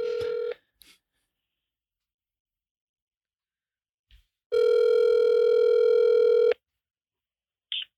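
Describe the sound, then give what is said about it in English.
A phone call being placed to a pastor in Virginia: short dialing tones, then a steady two-second ringback tone with a harmonic buzz, separated by quiet gaps, ending with a brief click as the line connects. “We're gonna make some calls right now, and this first call we're gonna make is to uh, a pastor in Virginia”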